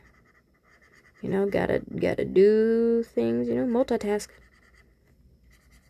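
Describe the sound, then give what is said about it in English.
A pen scratches and scribbles quietly on paper in the background as someone draws a webcomic, steady and faint, while a man talks briefly in the foreground. “And you may hear some uh, scribbling in the background again.”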